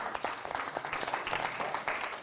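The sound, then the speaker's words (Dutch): An audience applauds steadily, a dense wash of many hands clapping at an even, moderate loudness that holds throughout with no voices on top. “En met dit applausje wil ik ook heel graag overgaan”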